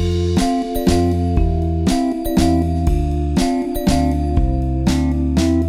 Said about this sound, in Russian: Слышите ли вы волшебный перезвон колокольчиков и топот оленей?